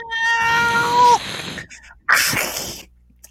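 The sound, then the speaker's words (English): A person does a drawn-out imitation of a cat's meow, its pitch sliding down at the end, followed after a brief pause by a shorter, breathy, noisier burst. “Lay a meow. Meow.”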